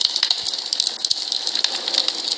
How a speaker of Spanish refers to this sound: Ahora en esta fogata que les digo que estamos al aire libre, bajo la luz de las estrellas, escuchen el crujir del fuego.